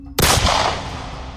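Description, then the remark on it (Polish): A single loud pistol shot cracks out sharply as a woman fires the pistol held to her own temple, its echo slowly fading away over the next second with no voices around it. “Ona po prostu przyłożyła sobie lufę do skroni i strzeliła.”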